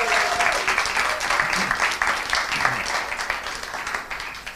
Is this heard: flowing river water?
no